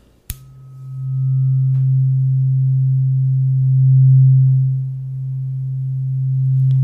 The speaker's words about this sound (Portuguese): E dessa vez com diapasão. Esse aqui é na frequência de cento e e oito Gosto bastante do som dele.